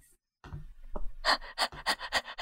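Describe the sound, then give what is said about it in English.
A person imitates an eager dog panting: a quick run of about eight breathy, hissing pants in a steady rhythm, preceded by a low vocal grunt, fairly loud. “I think you're supposed to be like a like a like a dog or, a, or an animal, just like ready, like eager and waiting.”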